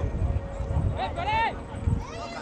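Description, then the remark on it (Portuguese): People shout and call out over a busy outdoor din, with soft thudding knocks of a ball being played scattered underneath. “É, vocês percebem barulho, vocês ouvem barulho ao redor, bola, gente gritando.”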